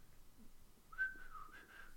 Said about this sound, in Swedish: Oj, ja. vad bra jag var på vissla.